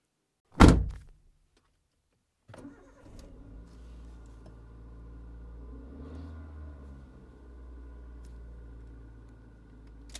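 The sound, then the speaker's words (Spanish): A car door slams shut once, loud, followed by a brief silence before the car's engine starts and settles into a steady, low idle. No one speaks. “Pues cierra la puerta del auto.”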